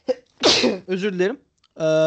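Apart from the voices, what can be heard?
sneeze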